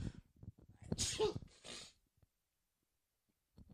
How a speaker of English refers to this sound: oh, I got sneeze again.